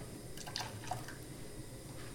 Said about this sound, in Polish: Teraz do rondelka z rozpuszczonym tłuszczem dodamy 7 łyżek wody. Nalewam z dzbanka, oczywiście nad szklanką, żeby nie porozlewać. Dodaję tą wodę do